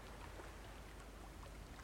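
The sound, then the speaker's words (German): Steady, soft rain falls without a break, a faint even hiss of many drops with no voices or other distinct sounds. “Ich höre nur den Regen.”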